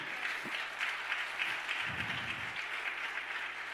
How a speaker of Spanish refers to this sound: Y este llegó el tiempo del avivamiento. Y un aplauso fuerte al Señor.